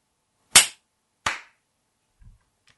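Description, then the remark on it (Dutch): Two sharp, loud hand claps ring out about a second apart, each with a short snappy decay, followed by a faint soft bump and near silence. No one speaks. “Oké, gaan we klikken of eh, klappen op uh, eh, 40?”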